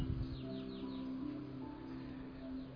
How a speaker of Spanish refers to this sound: Señor del silencio canto de los pájaros.